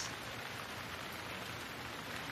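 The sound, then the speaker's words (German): Steady rain falls in an even, continuous hiss with no distinct drops or pauses, soft and fairly quiet throughout, with no voices. “Hör den Klang des gleichmäßigen Regens”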